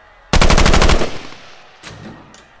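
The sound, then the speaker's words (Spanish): A loud, rapid burst of automatic gunfire lasting under a second, from an adolescent gunman shooting at fourth-grade students in a school classroom, followed by a fading echo and one or two fainter shots. “Anuncia Salvador mientras dispara sin piedad contra los alumnos del cuarto grado.”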